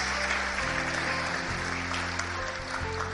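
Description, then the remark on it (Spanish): A crowd at a sermon claps for God steadily and continuously for a few seconds, a dense, loud wash of hand claps, with sustained low organ-like tones held underneath and shifting in pitch. “Dale el aplauso al Rey.”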